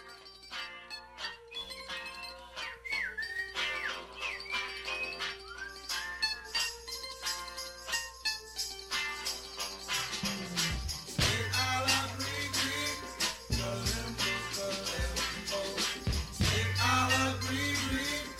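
An upbeat instrumental music track with bright melodic lines; a deep bass and steady beat kick in about halfway, filling out the sound at a loud, continuous level.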